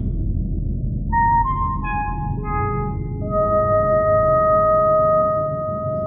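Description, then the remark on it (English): A famous film motif of pure synthesized electronic tones steps through a short sequence of pitches, the notes overlapping and the last one held long, over a steady low rumbling background. “This is the tones that we all know and love. Play the pop tones.”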